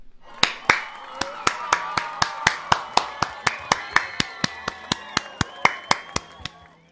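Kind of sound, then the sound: crowd, applause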